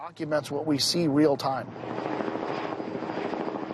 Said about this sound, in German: Hubschrauber kreisen bereits über dem Versteck.